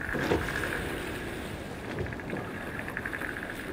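Rapid trains of small dolphin clicks picked up by an underwater hydrophone crackle through a steady underwater hiss, bunching into quick bursts toward the end, faint, with no voices present.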